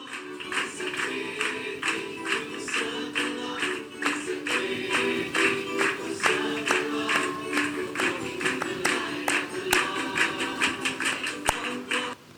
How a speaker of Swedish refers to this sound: Nu har vi samlats i, i kapellet och så ska vi sjunga. Jag har tagit in ljudet härifrån istället. De är hängivna i sitt klappande, kan man säga. De älskar att klappa händer.